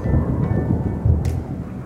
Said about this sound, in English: Black overcast skies were lit only by an occasional streaking bolt of lightning. The thunder moaned, groaned, and rumbled, shaking the ground as the clouds tore in a rage and rolled across the sky.